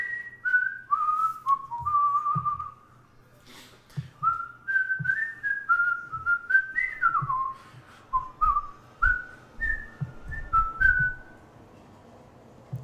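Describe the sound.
A person whistles the brisk, melodic Thor superhero cartoon theme tune, the notes stepping up and down in quick phrases, with soft low thumps and background rumble underneath, fairly clear.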